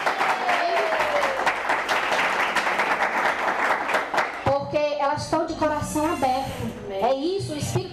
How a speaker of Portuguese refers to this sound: estou muito feliz com as minhas discípulas, porque elas. elas a gente vê que é mulheres que estão se esforçando, Aleluia. que querem aprender com Jesus. Aleluia! É verdade? E elas vão longe. Eu quero uma salva de palmas para elas, sim.